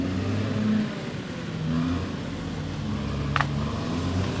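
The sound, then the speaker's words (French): A bulldozer's heavy engine rumbles steadily as it arrives in a forest in Gabon to haul away felled okoumé logs, its low drone rising and falling slightly in pitch, with a single sharp clank near the end and no voices. “Attention les tronçonneuses, c'est au tour des bulldozers de faire leur entrée.”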